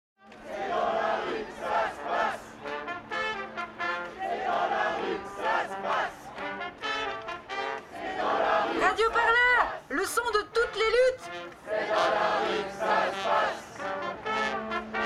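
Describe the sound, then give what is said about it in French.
A large protest crowd at a demonstration on the Place de la République chants together in loud, rhythmic bursts, voices rising and falling in repeated slogans with overlapping shouts throughout. “Ok, on passe en direct de la manifestation.”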